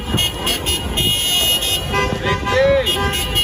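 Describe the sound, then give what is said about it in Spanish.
A chorus of car horns from a noisy protest caravan of dozens of teachers blocking traffic near the municipal building blares steadily and loudly, overlapping tones layered over busy street noise, with voices mixed into the din. “Después de todo, mientras la entrevistábamos, en la calle decenas de maestros cortaban el tránsito en las inmediaciones de la municipalidad con una ruidosa caravana de protesta.”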